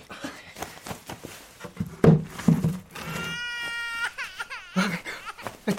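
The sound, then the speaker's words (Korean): A frail newborn baby with weak breathing, seemingly near to stopping breathing, cries in thin, wavering wails that rise and break off in short bursts, fairly soft, with some muffled rustling and thumps just before. “이 아이야말로 금방 숨이 멎을 것 같습니다. 울음소리에 들고 나간 숨소리가 미약합니다.”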